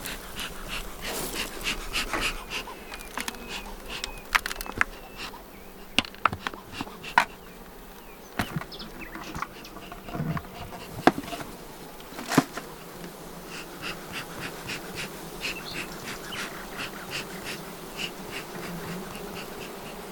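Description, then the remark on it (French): A drone-laying honeybee colony buzzes in a steady, dense drone with no talking, broken now and then by short sharp clicks and taps over the continuous hum. “qu'un bruit de bourdonneuse.”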